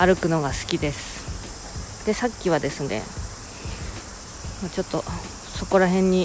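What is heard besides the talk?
cicadas singing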